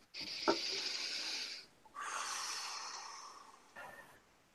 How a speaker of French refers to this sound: une respiration.